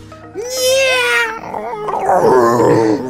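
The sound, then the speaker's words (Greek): A person's voice imitates a giant cat's roar: one loud, drawn-out, wavering growl-howl lasting about three seconds, heard alone. “Οπότε θα πω ότι ακούγεται ένα γιγάντιο βρυχυθμό εκεί. Ακούγεται σαν γιγάντια γάτα, όντω.”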